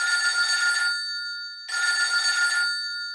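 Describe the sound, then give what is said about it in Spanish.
Two bursts of a telephone bell ringing from a phone in a booth at a shopping centre in Querétaro, each lasting about a second with a short pause between, bright and fairly loud, heard on its own without any talking. “este sonido te puede hacer ganar. Del 7 de octubre al 28 de noviembre, compra en el centro comercial. Busca la cabina, contesta el teléfono”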